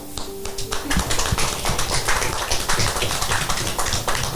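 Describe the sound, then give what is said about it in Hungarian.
Audience applause at an exhibition, for the exhibition's organiser: a dense wash of many hands clapping together, steady and fairly loud throughout, with no one speaking over it. “úgyhogy én arra kérlek benneteket, hogy tapsoljuk meg a”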